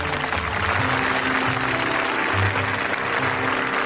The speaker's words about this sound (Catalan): I tothom va tornar esclatant aplaudiments de felicitat.